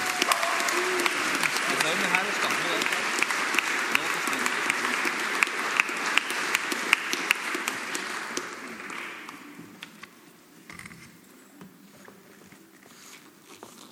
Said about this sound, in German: Darf ich euch um einen warmen Applaus für die beiden bitten?